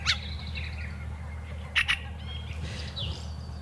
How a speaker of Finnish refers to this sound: Kyllä se niin on, että räkättirastas haluaa nyt huomiota. Kyllä. Ja mikä ettei. Onhan tämä hienon kuulosta.